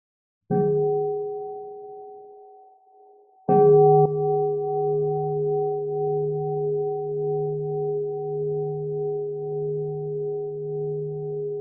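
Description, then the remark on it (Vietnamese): A Buddhist nun strikes a Buddhist bell twice, a few seconds apart. Each deep, resonant tone rings out alone, shimmering and slowly fading, with the second strike sustaining to the end. “sư cô thánh tiếng chuông”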